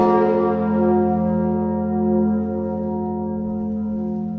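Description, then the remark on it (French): A large Notre-Dame cathedral bell hums with a deep, rich tone, its layered overtones sustaining and slowly fading, loud with no voices present. “cloche des cathédrales, cloche de Notre-Dame, cloche de ma patrie, terrain de l'espérance, cloche de France, cloche de Dieu.”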